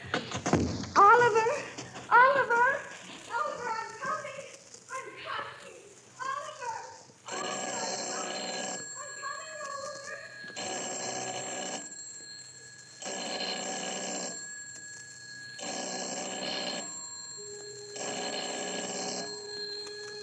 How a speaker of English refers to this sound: telephone ringing, ringing in an empty house.